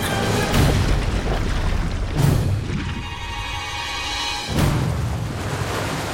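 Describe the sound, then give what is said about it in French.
Deep, heavy booms from an erupting young volcano a few hundred metres away, with several rumbling blasts rolling in over a few seconds, loud, over a steady roaring background of churning noise, as lava flows into the sea. “Ma parole, mais c'est le chaos ici de violentes explosions secouent la Terre.”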